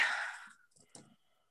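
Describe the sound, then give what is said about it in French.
A breathy exhale, then a brief clatter of four dice tumbling onto a hard surface, a quick cluster of small clicks and knocks that fades within a second. “Bon, ben on va lancer les 4 d”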